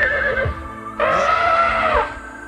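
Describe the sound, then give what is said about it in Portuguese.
A billy goat bleats once, loud, a wavering nasal cry lasting about a second, preceded by a softer, shorter call. “Bode oiô falando.”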